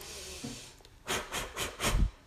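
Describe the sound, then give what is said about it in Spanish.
Four quick, forceful breaths pushed out through the mouth in a fast rhythm, breathy, with the last one the heaviest, as part of a breathing exercise. No one speaks. “Las inhalaciones y las exhalaciones son rápidas, porque obviamente cuando uno está así, uno quiere lo que, lo que quiere es descargar.”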